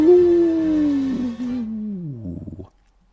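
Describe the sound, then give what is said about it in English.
A person imitates the howl of Timber the Wolf at Snake Eyes' cabin in the High Sierras: one long, loud wail that slowly slides down in pitch, breaks into a wavering tail, then stops abruptly into silence. “And finally, in the High Sierras, Timber the Wolf visits Snake Eye's cabin and howls.”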